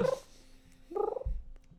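A cat named Sam purrs in short, low rumbling bursts while being petted, broken by two brief tonal chirps or trills; no one speaks.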